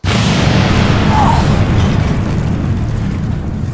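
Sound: dynamite explosion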